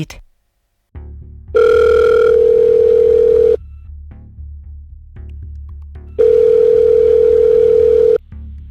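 Two long, steady ringback tones of an outgoing phone call made for a programme on Danish radio P1, each about two seconds, separated by a pause with a low background hum. The tones are loud, and no one speaks.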